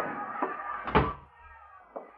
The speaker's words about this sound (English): Shut the door, Lou.